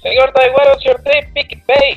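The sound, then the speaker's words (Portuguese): A man's voice comes through a phone line sounding muffled and tinny, with a hollow, boxy resonance as if he were speaking from inside a condensed milk can; a short spoken question. “Mas que, que, que, Parece que você tá dentro de uma lata de leite moça.”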